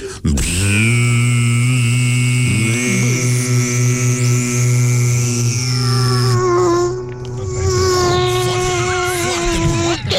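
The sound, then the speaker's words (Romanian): A voice imitates the buzz of a mosquito with lots of testosterone, a long, loud, low droning hum lasting about ten seconds. The pitch holds steady, then shifts and wavers slightly partway through. “Așa face țânțarul de testosteron.”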